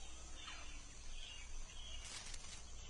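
A tree frog calling: a steady, high-pitched chirring chorus that runs throughout, with a few brighter, rapid trilling bursts toward the end. No one speaks.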